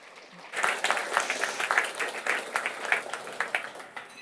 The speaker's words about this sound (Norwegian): Så gi Helene Uri en eh, varm applaus, dere.